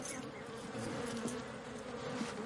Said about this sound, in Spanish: Espanta a las abejas que vuelan junto a su cara.